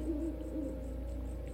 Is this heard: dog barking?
no